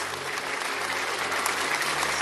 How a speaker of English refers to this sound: People of God, just slap your hands for Jesus. Just clap for the Lord. Just clap for the Lord. Slap your hands for Jesus. Slap your hands for Jesus.